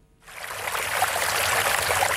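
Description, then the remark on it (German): Steady splashing and plashing of water in a fountain on a hot day starts after a brief pause and continues as a dense, even wash of sound, moderately loud, with no voices. “Es ist nicht nur ein beruhigendes Gefühl, das Plätschern vom Wasser in einem Brunnen, sondern es kann auch sehr wertvoll sein.”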